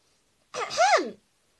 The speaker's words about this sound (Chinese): …清了清嗓子，开始上课了。